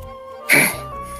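A single short, harsh cough bursts out, loud and breathy, then fades into a quiet background hum.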